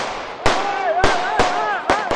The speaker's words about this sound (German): Alle stehen für sich allein, mitten im Tumult. Und plötzlich fallen Schüsse.